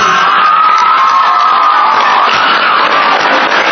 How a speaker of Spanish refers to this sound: Un fuerte aplauso para Julio César Chávez.